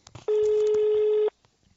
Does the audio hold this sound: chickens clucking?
no